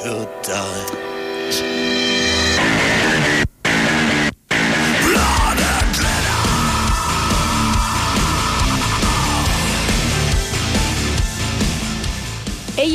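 A loud, dense burst of gothic industrial dance music by Germany's pop Eurovision representatives, with a pounding electronic beat, heavy synths and vocals, interrupted by two abrupt split-second dropouts early on before driving steadily onward.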